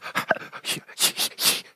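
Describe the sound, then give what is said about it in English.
A person imitates childbirth-style panting, a breathing exercise from birthing classes: a quick series of short, breathy huffs, fairly loud, with the last few exhalations growing stronger and airier. “They haven't learned their breathing exercises.”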